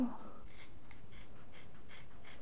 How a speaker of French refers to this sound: Et il faut au moins ça pour accepter de se faire couper les cheveux avec les ciseaux qui servent à ouvrir les paquets de pâtes.